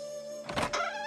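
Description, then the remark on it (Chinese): A wooden bookcase door on the southeast side of a room creaks open, a drawn-out, strained squeak with a steady whining pitch and a brief rougher scrape midway, heard alone without any talking. “他这边正琢磨的欢快，不想吱呀一声，东南面的书橱开了”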